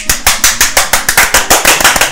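Brisk applause as a guest is introduced on a radio show broadcast from Matsumoto, Shinshu: a steady run of sharp, loud claps, roughly four or five per second, with no talking over it for the couple of seconds it lasts.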